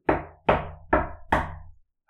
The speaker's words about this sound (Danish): Men så bankede det på igen, dengang mere aggressivt.